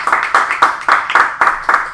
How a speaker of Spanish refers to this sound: Vamos, a dar un aplauso fuerte al Señor. Vamos, den un aplauso fuerte si usted lo cree para su vida.